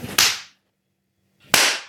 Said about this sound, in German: So, äh, erschreckt sich der Hund, wenn ich einmal in die Hand, in die Hand klatsche? Nein.